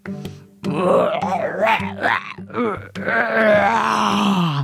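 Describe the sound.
A man's voice imitates a Bigfoot's deep, wavering groan, a sustained rumbling moan with a few rising and falling swells over several seconds, loud with no other talk.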